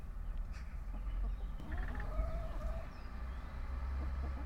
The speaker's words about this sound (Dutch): Met op de achtergrond de geluiden van de stadstuin de kippen, de kat en de bouwwerkzaamheden in onze wijk.